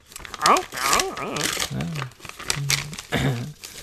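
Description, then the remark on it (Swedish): Close, noisy crinkling and ripping of paper as a present is unwrapped, in several bursts over a few seconds, with voices murmuring and exclaiming over the rustling. “Jag ska Nej. öppna det här. En jävla massa papper.”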